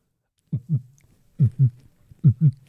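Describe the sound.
A voice imitates a heartbeat with three close, evenly spaced double thumps, each a low lub-dub pair, clear and alone with silence before the first beat.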